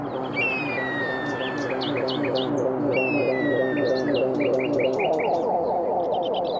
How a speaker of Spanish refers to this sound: Los pajaritos van comunicando entre cerro y cerro, entre quisco y piedra, cuando se acerca la primavera. Es costumbre de estos territorios escuchar los pajaritos. Ellos llevan y traen mensajes uniendo valles, cordillera y mar.